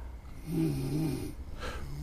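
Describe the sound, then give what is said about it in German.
Snoring from many people lying asleep in heaps along a path toward a volcano beside a jungle: a low, rumbling inhaled snore followed by a breathy, hissing exhale, heard fairly quietly against a faint background with no talking. “ähm, ein Haufen Waffen vieler Schnarchgeräusche.”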